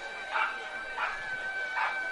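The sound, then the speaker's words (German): A dog barks three times at a steady, unhurried pace, the short sharp barks standing out moderately loud over a constant background hum. “Und der Hund ist wieder da.”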